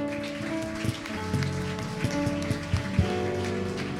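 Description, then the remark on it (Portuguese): An audience applauds the Lord with a steady, dense patter of clapping over sustained held musical tones, a few sharper claps standing out for about four seconds. “Quantos pode aplaudir ao Senhor?”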